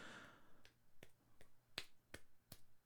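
hand clapping

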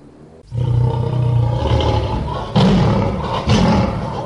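lion roaring

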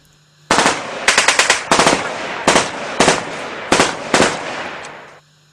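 submachine gun fire

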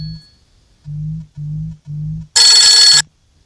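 telephone ringing

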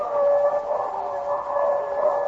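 wolves howling

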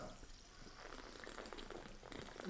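sparkling water being poured

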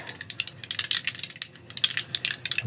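dice being rolled

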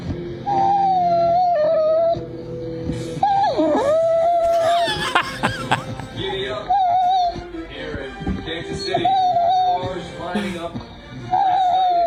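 dog whimpering

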